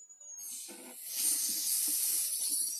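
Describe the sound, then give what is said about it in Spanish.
A person imitates a mechanic welding on a car, making a long, steady hissing breath like a welding torch that starts after a brief pause and holds for over two seconds, fairly loud, with faint voiced undertones. “Está soldando ahí, ¿ya? ¿Cómo hace? ¿Cuando suelda?”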